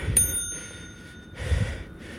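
A bell rings once with a sharp, bright strike, its metallic tone lingering and slowly fading over about two seconds, with soft rustling noise underneath and no talking.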